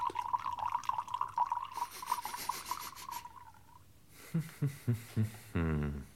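Wine pours into long-stemmed, high-gloss cut glasses with a faint ringing tone, then several quick glugs from the bottle and a short final splash as a glass fills, quiet, with no talking.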